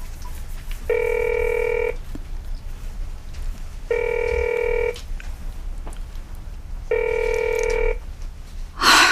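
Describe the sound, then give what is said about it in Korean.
A telephone rings three times, each steady one-second tone separated by roughly two seconds of quiet, and nobody picks up; a brief rustling burst comes at the very end. “왜안 받아?”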